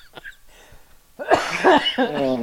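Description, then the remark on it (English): A loud coughing fit as a person chokes: a quiet catch of breath, then three or four harsh, raspy coughs in quick succession, each trailing into a strained, wheezy rasp. “was choking to death over there.”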